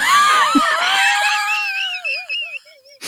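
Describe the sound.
A person's voice imitates Chewbacca's roar: one long, loud, warbling howl that wavers in pitch and trails off before a short burst at the end.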